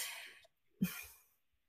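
A breathy rush of air, a brief pause, then one sharp, explosive sneeze or cough that fades out quickly, with no talking.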